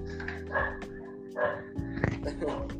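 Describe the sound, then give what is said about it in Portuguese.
Several dogs bark in short, scattered bursts, moderately loud, over a steady low hum. “Opa, tem uns cachorros aí.”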